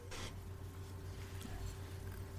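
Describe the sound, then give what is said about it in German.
A short scraping rustle near the start, then faint clicks and handling noises from scissors being moved about, all over a steady low electrical hum with no one speaking. “Isaac, was machst du da mit dieser Schere?”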